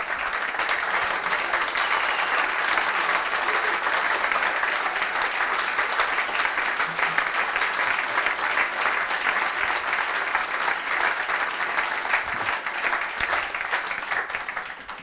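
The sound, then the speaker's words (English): Sustained crowd applause at QPR football club for a club legend fills the whole stretch, a dense, steady wash of many hands clapping at even loudness, with no voices standing out above it. “and that applause is deserved.”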